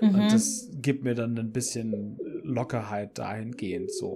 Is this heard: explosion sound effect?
no